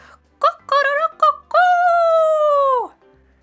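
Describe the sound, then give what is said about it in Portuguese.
A human voice mimics a rooster's crow: three short, clipped syllables followed by a long, loud held note that bends downward at the end, performed up close with no other sounds. “Então, quando o sol começou a surgir por detrás das árvores, o galo acordou e cantou”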